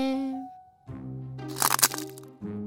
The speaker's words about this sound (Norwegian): Var det lyden av en kvist?